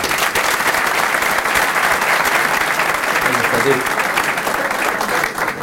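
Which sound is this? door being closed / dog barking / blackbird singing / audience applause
audience applause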